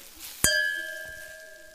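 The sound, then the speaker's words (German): A single bright clink of two wine glasses of Riesling touching in a toast, followed by a clear ringing tone that lingers and slowly fades. “Und machst uns zwei Gläser und eine Flasche Riesling fertig? Ah, Luki, endlich wieder Riesling und Fritte. Cheers!”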